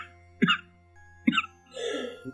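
A person coughs in short, harsh bursts: two single coughs about a second apart, then a longer raspy, throaty stretch and one more abrupt cough at the end.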